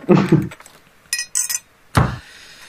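A high, tinkling little bell chime rings in two quick bursts, bracketed by a dull low thump beforehand and a sharper knock afterward, with no one speaking.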